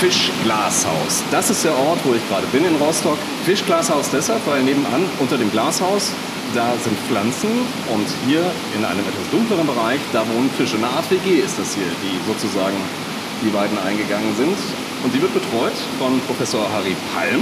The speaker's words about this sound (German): Man hört es im Hintergrund, es rauscht ordentlich Wasser hier durch hier züchten Sie sozusagen Fisch. Ja, es ist tatsächlich eine Produktionsanlage für Fisch, also eine Aquakultur für afrikanische Wälse.